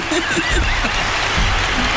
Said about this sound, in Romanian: Ovații, ovațiuni. La scenă deschisă. Ovațiuniuri. Ovații de neuitat.